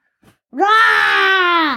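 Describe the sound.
A person imitates a T-Rex roar with one loud, sustained, raspy vocal bellow lasting over a second, holding a steady pitch before trailing off, after a faint brief noise.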